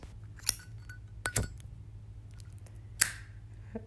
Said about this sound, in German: Habt ihr diese Flamme gehört?